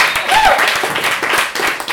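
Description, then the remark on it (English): An audience at a live quiz night applauds author Rachel Lyon, the evening's quiz helper: a dense, steady wash of many hands clapping at an even loudness throughout, with a brief high whoop rising out of it early on. “Round of applause for Rachel Lyon”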